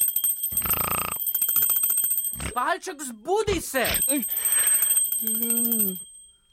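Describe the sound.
A small bell rings continuously with a bright, high, steady tone that runs under the whole stretch while voices speak over it, one rising into sung or drawn-out calls.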